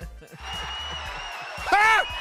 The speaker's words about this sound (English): Let's clap it out. Let's just clap it all the way out.